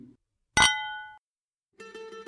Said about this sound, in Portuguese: Brinde história? Tchim, tchim. Tchim, tchim.